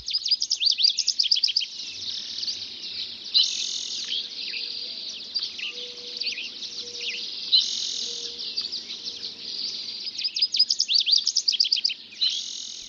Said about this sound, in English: The dawn chorus is really a musical performance with two or three or twelve separate acts. On this particular morning, another voice joins the chorus.